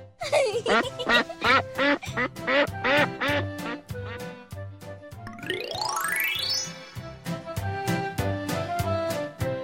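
A duck quacks over and over in quick, nasal bursts, steady and fairly loud, with a rising whistle-like sweep briefly cutting in partway through before the quacking resumes.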